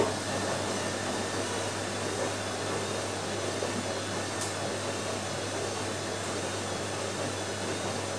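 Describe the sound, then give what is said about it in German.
A washing machine runs with a steady, even mechanical whir and low motor hum, unchanging for the whole stretch, with no voices. “Wir waschen Wäsche und erzeugen Geräusch.”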